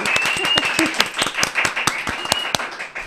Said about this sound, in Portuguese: Uma salva de palmas, minha gente.